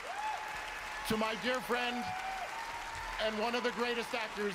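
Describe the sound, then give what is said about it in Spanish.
The audience at the Critics Choice Awards in Hollywood applauds as Harrison Ford is given the Critics' Choice Career Achievement Award, in a steady, dense wash of clapping that runs the whole time, while a voice speaks over it in bursts. “Casi no se ha escuchado porque por los aplausos, la emoción, esto es los Critics Choice Awards, que son una serie de premios muy importantes que hay ahora en Hollywood eh, y que premian lo mejor del cine y de la televisión”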